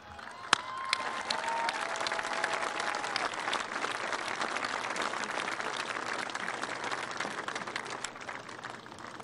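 crowd applause

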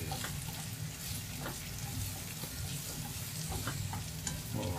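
cooking sounds

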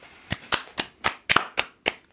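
applause

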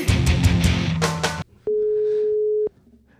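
telephone ringing tone

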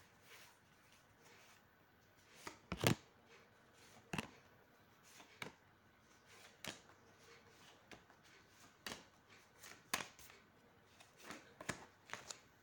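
shuffling tarot cards

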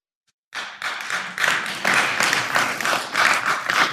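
crowd clapping

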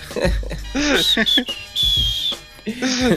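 person whistling

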